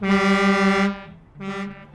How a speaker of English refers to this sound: He's a protester. Why is he honking? That's how they protest.